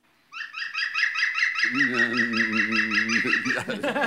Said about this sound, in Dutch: Ik sprak van de week een vrouw en die straalde van geluk, want ze had de groene specht gezien en gehoord. De specht met de lachende roep.